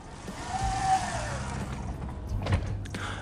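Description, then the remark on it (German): A train pulling away, with a rising electric motor whine over a steady low rumble and continuous rolling noise, plus a couple of brief clunks toward the end. No one speaks. “Naja, und jetzt fährt die Bahn weg.”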